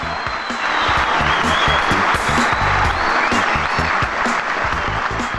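A dense burst of applause, many hands clapping rapidly and steadily at a fairly loud level for several seconds without a break.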